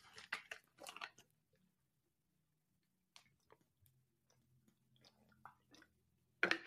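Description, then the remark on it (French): A drink being sipped: a few quick wet slurps, then a quiet stretch of faint swallowing and mouth noises, ending with a sharper clatter. No talking. “Passons aux chiffres pour une petite gorgée.”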